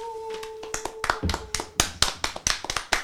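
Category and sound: crowd, applause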